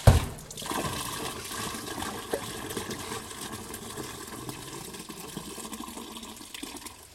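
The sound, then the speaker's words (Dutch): Water sloshes and swirls inside a pot being rinsed out, a steady splashing wash with small clinks and gurgles, beginning with a brief louder slosh and continuing evenly without voices. “Als nou, je het gevoel hebt dat je hem schoonspoelt.”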